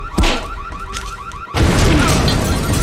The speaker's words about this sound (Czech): Další výbuch! To snad ne, to město hoří!